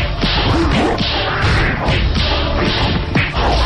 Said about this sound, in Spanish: Ahí está el sonido del videojuego, por si alguien está interesado. Se llama Shaq Down.